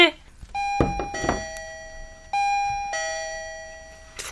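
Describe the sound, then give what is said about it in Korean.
An intercom doorbell rung by police from Dongnam Police Station sounds in bright electronic tones, sustained chime notes sounding three times in succession with a steady harmonic ring, interrupted at the start by brief thumps and rustling. “네, 인터폰으로 말씀드린 그대로 동남경찰서에서 나왔습니다.”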